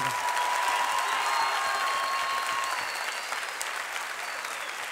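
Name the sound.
crowd applause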